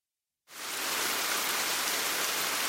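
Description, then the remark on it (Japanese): After a brief silence, steady rain suddenly fades in and keeps falling while a car is driven through it, a dense, even hiss of countless drops with no voices or other sounds. “雨の中、沈んだ気分で車を走らせた。”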